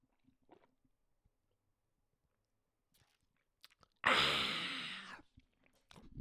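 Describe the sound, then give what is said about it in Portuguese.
Quiet sips and soft swallowing clicks as someone drinks water, followed by a loud, breathy exhale lasting about a second, then near silence. “Deixa-me só beber água.”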